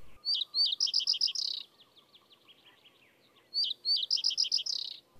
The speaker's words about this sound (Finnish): Pajusirkku istuu jämäkästi pajupensaikon latvuksessa ja laulaa vaatimatonta säettään muiden kevätlintujen konsertissa. Laulun lisäksi pesimäympäristöstä kuuluu välillä myös tsiy-ääni, mistä tarkimmat korvat lajin myös erottavat.